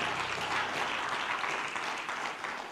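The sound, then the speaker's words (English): A crowd claps steadily, dense overlapping hand claps forming a continuous wash of applause that holds strong and then tapers slightly toward the end, with no clear speech. “Clap your hands if you believe in the Word of God.”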